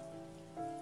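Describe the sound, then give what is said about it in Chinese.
Soft, steady rain falling outside a window hisses without a break, with a faint sustained tone humming underneath that swells slightly near the end. No one speaks. “好多年过去了，只记得当初窗外不断有雨声，听筒那边传来你断断续续的声音。”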